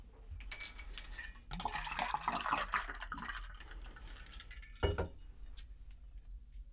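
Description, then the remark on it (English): A few seconds of wet, noisy sipping and slurping from a drink, fairly loud and steady, followed by a single dull thump, like a cup being set down, with no talking. “Sorry, I'm just gonna gonna have a sip.”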